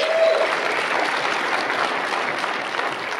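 An audience at Legacy City Church claps steadily for an elder of the church, a dense, even wash of many hands sustained at a fairly loud level for a few seconds, with no voices standing out.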